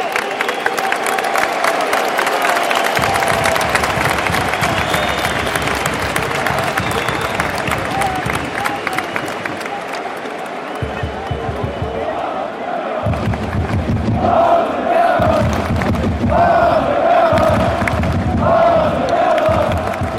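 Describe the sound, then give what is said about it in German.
A loud stadium crowd at a football match roars and cheers continuously as a player is substituted a quarter hour before the end, with rhythmic chanting bursts and heavy low rumbling swells toward the end, as thousands of voices react together. “Torgan Azar, der zu Dortmund wechselt, geht und Patrick Herrmann kommt. Das hört sich so an.”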